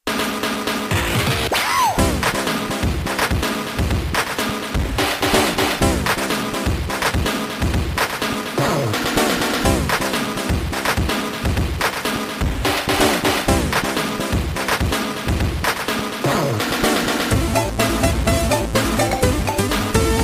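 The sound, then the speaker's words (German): Retro Commodore 64 SID chip music plays loud and continuous, with punchy sampled drum hits on one track keeping a steady, driving beat beneath a thin, buzzy synth melody on the other three tracks, plus snippets of speech. “Das hat Drum Samples und es hat diese Sprachfetzen.”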